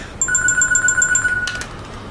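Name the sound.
phone ringtone ringing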